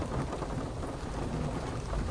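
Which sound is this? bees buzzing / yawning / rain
rain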